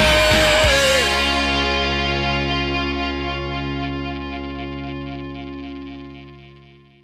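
A rock song ends on a loud distorted guitar chord: a quick slide as the band cuts out, then the chord rings on alone, buzzing and slowly fading over several seconds.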